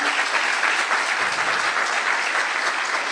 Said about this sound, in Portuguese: Vamos recebê-lo com um aplauso, ele merece.